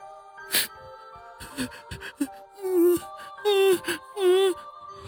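Several drawn-out, wavering wails of a woman's crying rise and fall in pitch in separate bursts, with a lingering echo and a steady ringing tone underneath, sobbing echoing inside a mountain cave late at night.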